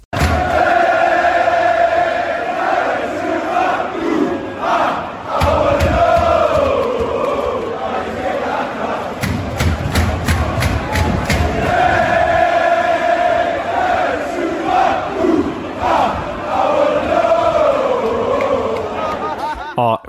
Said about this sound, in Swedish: Så skit ska han ha, den jäveln. Mer sådana ramsor.